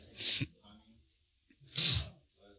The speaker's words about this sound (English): Bless you.